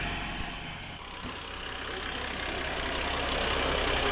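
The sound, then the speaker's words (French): A fire truck's engine idles steadily in Arsac on Easter Sunday with a low, rumbling drone that holds constant throughout, moderately loud, with no other distinct sounds standing out. “Il y a deux camions de pompiers.”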